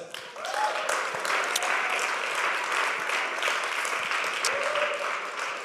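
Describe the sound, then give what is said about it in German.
Sustained applause from a crowd fills the space, a steady dense patter of many hands clapping with a few faint voices or cheers rising through it. “Gib mir jetzt einen Applaus.”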